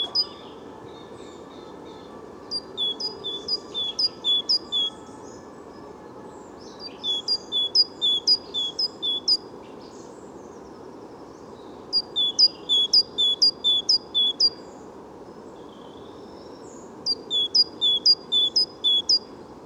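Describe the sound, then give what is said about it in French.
A great tit sings repeated bursts of high, piercing two-note phrases, one note stressed, in four loud rapid sequences over a steady low rumbling background noise, in a very noisy spot less than 100 metres from a traffic light. “Maintenant, voilà, la maison charbonnière chante.”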